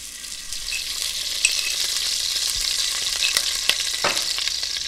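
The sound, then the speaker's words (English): A tablespoon of coconut oil sizzles steadily in a hot pan, ready for sautéing cauliflower rice: a dense crackling hiss with scattered sharper pops and spits throughout, moderately loud with no voices. “And here, hear that pan, it's hot and ready.”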